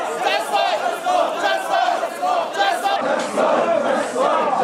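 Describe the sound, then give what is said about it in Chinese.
A large crowd of shirtless men shouts slogans loudly and continuously to warm up, voices overlapping in rough unison chants with brief dips between bursts, the roar sustained throughout, as cold water is poured over their heads by bonfire light in winter at the Kuroishi Somin Festival, Iwate Prefecture, Japan. “寒冬当中，参加民众光着上身，冷水当头浇下，在升起的篝火光影当中大喊口号热身，准备参加祭典的重头戏。”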